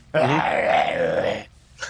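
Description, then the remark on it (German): A person imitates wolves growling ever louder with a single sustained, rough, wavering growl of about a second and a half, loud, followed by a brief breathy sound. “Die beginnen jetzt noch lauter zu knurren. Also machen Wölfe nicht, aber so.”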